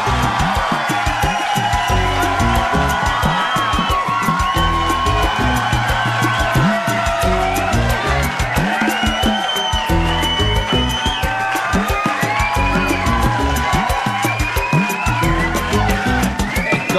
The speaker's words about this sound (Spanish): Hoy es viernes. Un aplauso para todas nuestras mamás.